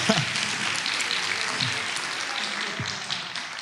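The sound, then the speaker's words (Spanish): A crowd breaks into steady applause for the women, a dense wash of many hands clapping at once that holds at an even, fairly loud level throughout without fading. “¿Por qué no dan un aplauso a las mujeres por eso?”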